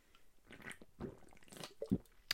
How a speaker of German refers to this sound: So, ich muss mal eben einen Schluck trinken. Ich habe jetzt schon wieder fast vier Minuten geredet. Da, da wird der Mund schon mal trocken.